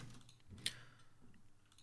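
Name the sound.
computer mouse clicking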